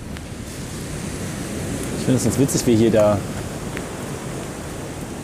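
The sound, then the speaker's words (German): A steady, hissing wash of ocean surf breaking somewhere below, continuous, with a person speaking briefly over it partway through. “Achso, das sind die Wellen, die da unten sind.”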